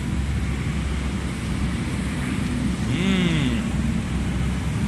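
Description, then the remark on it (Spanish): Steady outdoor city ambience with a constant low rumble of traffic and wind, and a brief rising-and-falling tonal sound, like a passing horn or siren, partway through. “Mientras que todos están grabando podcast en estudios cerrados, mi estudio es la ciudad.”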